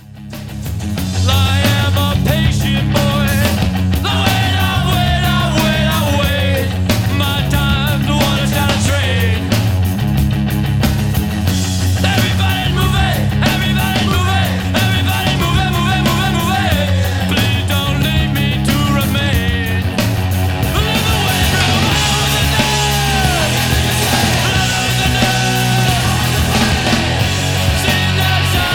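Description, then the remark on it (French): A loud punk rock song plays throughout: a driving bass line, distorted guitars and pounding drums, with a singing voice riding over the dense, steady band. “Ce que vous venez d'entendre, c'est le titre … qui n'est pas celui que je vais analyser aujourd'hui”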